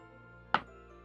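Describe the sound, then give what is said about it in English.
A single sharp clack as a die lands on a hard surface during a game, brief, over a faint steady background hum with no one talking. “What die would you like me to roll?”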